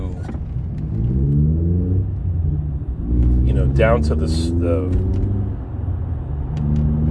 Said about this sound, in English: fucking why don't you get a real muffler you goddamn pussy with this fucking toyota tacoma um how about this dual exhaust pipes motherfucker